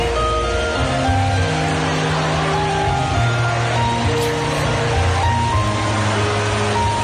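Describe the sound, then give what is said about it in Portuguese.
A steady, loud rush of rain pouring down inside a shopping mall, like a cascade of water, continuing without a break while musicians play a sustained melody over the watery wash; filmed on a mobile phone. “O som não é, não é brilhante porque ainda por cima ouves a, ouves a cascata de chuva a cair dentro do shopping.”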